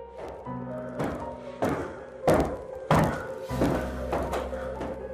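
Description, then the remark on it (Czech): Slow, heavy footsteps thud on stairs at a steady, unhurried pace, about one every half second or so, over a low droning hum in the background. “Zaslechli jsme pomalé kroky na schodech.”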